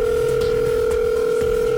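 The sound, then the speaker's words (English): A telephone rings with a loud, steady electronic tone that holds unbroken from start to finish, clear, with no voices. “Okay, God, stop the ringing.”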